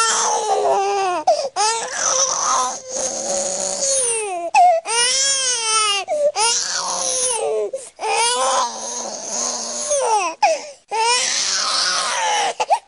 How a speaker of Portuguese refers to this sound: aí eu vou pedir para o, o Nelson Volter tocar também o Bebê Chorão, o choro do Bebê Chorão